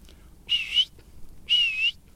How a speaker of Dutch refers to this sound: Uh, eh, tuut tuut, dus opdrijven. Ja hoor. En de lange fluit eh, is stoppen.